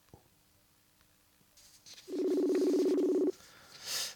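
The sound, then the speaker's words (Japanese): A mobile phone call's ringback tone plays once over a speakerphone during a radio recording, a steady buzzing ring lasting about a second. Faint rustling comes before it, and a short hiss follows. “電話してみようかななんて思ってますけど今ね携帯で出る出ないかもしんないけど出るかなスピーカーにしてみよう”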